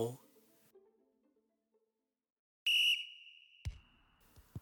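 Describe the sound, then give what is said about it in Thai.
A sharp, loud referee's whistle blast signalling the start of a football match bursts in after a quiet stretch, holding a steady shrill tone for about two seconds before a thud and some noise follow. “สัญญาณนกหวีดเริ่มการแข่งขันเป่าดังขึ้น”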